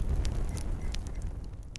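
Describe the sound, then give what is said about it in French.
Steady crackling with sharp, irregular snaps and pops over a low, constant rumble, like a fire burning. No voices. “Crépiter veut dire émettre des petits bruits secs et fréquents.”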